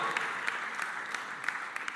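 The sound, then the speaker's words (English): A church audience claps steadily, a dense patter of many hands with a few sharper individual claps standing out, sustained at an even, moderate loudness throughout. “It will serve, yeah, you can clap that.”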